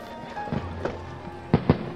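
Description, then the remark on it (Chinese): Fireworks crackle and pop at the Lantern Festival, with a couple of softer bursts early on followed by two sharp, loud bangs in quick succession near the end, over a low rumbling background. “快看，放烟花了。”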